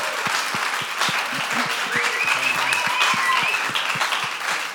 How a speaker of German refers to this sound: Großer Applaus! Geben wir einen riesen Applaus!